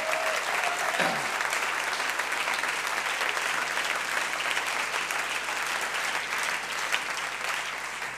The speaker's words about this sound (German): Gebt mal dem Herrn einen Applaus.